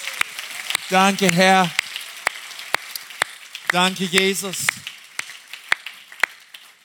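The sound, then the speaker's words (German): A crowd of people applauding together for Jesus, a steady wash of claps with sharper individual claps standing out, while a man speaks two short phrases over the applause. “Und wir geben Jesus mal einen Applaus.”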